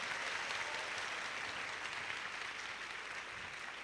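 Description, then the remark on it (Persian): A crowd snaps fingers and claps to imitate rain, one finger for rain, two for heavier rain, three for hail, a steady, dense continuous crackling wash with no talking over it. “یه انگشتی بارون میاد دو انگشتی تند شدش سه انگشتی تگرگه چهار و پنج حالا”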